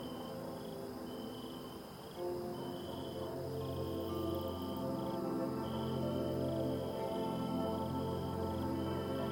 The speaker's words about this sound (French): les grillons se mettent à chanter doucement. D'autres animaux noctambules chuchotent au loin.